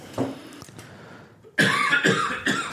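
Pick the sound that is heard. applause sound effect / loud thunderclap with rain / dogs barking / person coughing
person coughing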